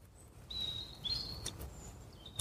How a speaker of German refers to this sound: Ich lasse das mal kurz wirken mit dem Vögelgezwitscher im Hintergrund.